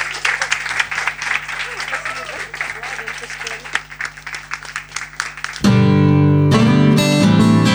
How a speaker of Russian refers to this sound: Еще раз аплодисменты для комитета Ирины Дубенко.